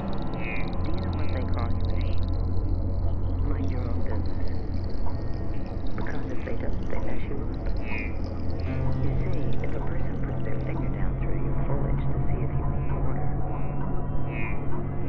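Water pours steadily into a plant pot for about fifteen seconds, a continuous splashing trickle over a low, constant background hum.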